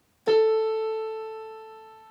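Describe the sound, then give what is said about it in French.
A single struck tuning fork rings out with a sharp attack, then holds a steady, pure pitched tone that fades slowly over about two seconds, heard alone. “Quand vous faites sonner un diapason, c'est cela là.”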